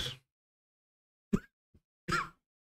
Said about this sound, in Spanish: A ver. está tosiendo.